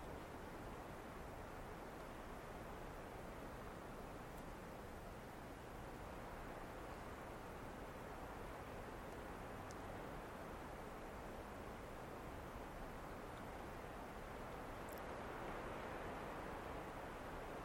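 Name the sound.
rain falling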